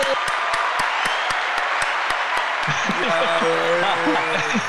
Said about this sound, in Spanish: ¡Vale los aplausos!